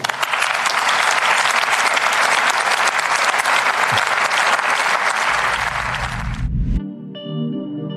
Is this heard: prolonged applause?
yes